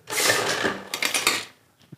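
A port bottle's neck bursting after being heated with glowing hot tongs: a loud, sustained hiss and crackle with brittle clicks for about a second and a half, then a faint, sharp crack.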